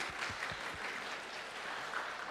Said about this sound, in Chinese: 所以好不好？让我们再一次拍手，给他们能够有鼓励。